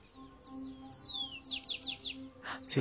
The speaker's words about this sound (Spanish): Algunos pajaritos que están cantando.